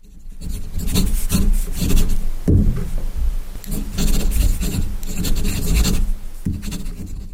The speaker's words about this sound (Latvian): Mm. Ko tur darīja? Kasījās. Vai mm, rakstījās? Nē, nē, nē. Punktu taču pielika beigās. Rakstīt. Arī tā kā pakas ir pakas un tu pieliec punktu. Ja? Jā, tā bija rakstīšana.